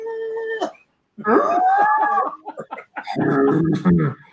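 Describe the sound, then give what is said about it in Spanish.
A person imitates a wolf's howl in three loud vocal bursts, the voice gliding and wavering in pitch with brief gaps between them. “y después por la noche así en, lo, la hoguera abierta así con una vaca con una vaca dando vueltas gritando así como los lobos.”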